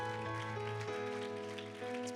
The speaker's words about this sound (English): Amen. The Lord bless you. Would you give the Lord a hand clap of praise before you're seated?